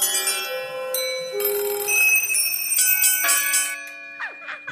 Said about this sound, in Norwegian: ga oss olympisk klokkeklang